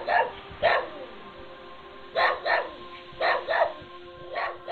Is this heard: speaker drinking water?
no